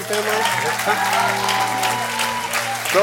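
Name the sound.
audience applause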